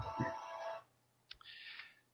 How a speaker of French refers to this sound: C'était une sonnerie de téléphone portable.